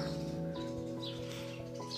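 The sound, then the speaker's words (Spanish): Small birds chirp in short, scattered bursts somewhat in the background, layered over a steady low tonal hum. No one speaks. “Ahora, ahora hay pajaritos aquí y todo.”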